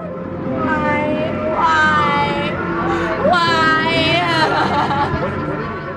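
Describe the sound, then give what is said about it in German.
Figure skater Nancy Kerrigan screams and wails loudly in anguish after being struck with a police baton by a hidden attacker as she leaves the ice after training at an ice rink in Boston in 1994, several high, strained cries rising and falling in pitch, with a murmur of other voices underneath throughout. “Als sie nach dem Training vom Eis Richtung Katakomben geht, schreit sie plötzlich lautstark auf.”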